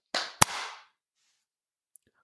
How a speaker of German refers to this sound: Dann lass uns doch mal zweimal klatschen. Mhm. Eins, zwei, drei.